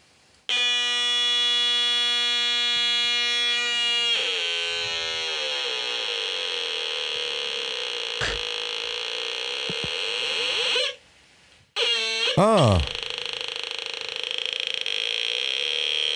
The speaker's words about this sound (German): Ja, aber der, der erste Sound, der erste Sound, den es gemacht hat, das war mehr so, das war schon fast Atari-Sound, würde ich sagen.